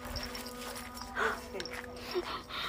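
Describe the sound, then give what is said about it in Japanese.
A dog barks at the speaker, a couple of short, sharp barks about a second apart, over a low steady hum with some breathy background noise. “ちょっと犬に吠えられて超ビビった超ビビったっていう。”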